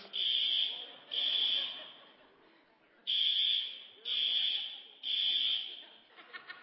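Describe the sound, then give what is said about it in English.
An alarm system blares in repeated loud, high-pitched electronic beeps, five long pulses with brief gaps, while faint voices and chuckling murmur underneath. “So, we are going to quick try to figure out what is going on with the alarm system.”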